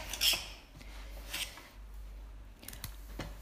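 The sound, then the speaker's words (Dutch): A knife slices carrots into rough slices for soup in a few crisp, crunchy cuts, each a short bright burst with a faint thud against the board, irregularly spaced with no talking. “Eerst nog eventjes de wortels snijden.”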